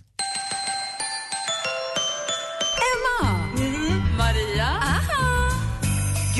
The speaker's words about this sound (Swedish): … med … version av … som vi premiärlyssnade på vid sju i morse. Och så här lät låter den.